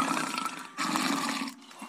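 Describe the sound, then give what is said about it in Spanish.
A lion cub wandering on a street of a residential subdivision around one in the morning, recorded as neighbors reported it, growls and snores in two long, rough, rasping bursts separated by a brief pause, with a low throaty rumble under a noisy breathy texture; no one speaks. “Y así se escuchó cuando, cuando los vecinos estaban haciendo la denuncia. Estaba roncando.”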